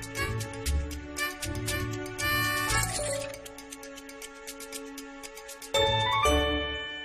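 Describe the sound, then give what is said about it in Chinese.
Coins drop into a slot with a run of bright, ringing metallic chimes, several clinks in quick succession, each leaving sustained bell-like tones. Loud and clear, with no voices. The coins are inserted to reach nine coins in total, the number needed to ride a hot air balloon. “我们总共投了九个硬币了。”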